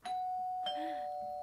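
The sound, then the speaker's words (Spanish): A doorbell chimes twice, two bright ringing tones struck about half a second apart, the second lingering and ringing out steadily, with no one talking over it. “Eso fue el timbre. Fue un timbre.”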